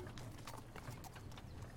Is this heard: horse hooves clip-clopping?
yes